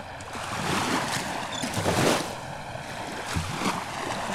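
sea waves

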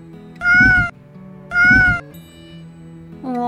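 cat meowing

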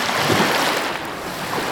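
ocean waves

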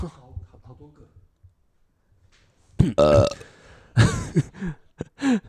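burp

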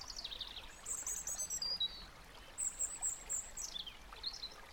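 flowing stream water

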